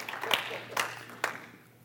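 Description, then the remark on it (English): A few scattered, faint claps from an audience, three sharp isolated hits spaced roughly half a second apart rather than sustained applause, with a low murmur underneath. “You can clap for that too if you want to.”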